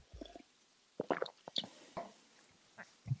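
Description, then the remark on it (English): A loud gulping swallow of water, heard as a short cluster of wet, throaty plops and clicks, with a few fainter mouth sounds after it and no talking. “That was a that was an auditory swallow.”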